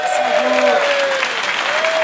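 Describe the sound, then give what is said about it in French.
An audience applauds loudly and steadily for about two seconds, a dense wash of clapping, with a sustained voice or cheer rising faintly underneath, as a speaker introduces people one at a time to be applauded. “mais juste avant, je vais te présenter hein, une personne à la fois qui mérite son applaudissement.”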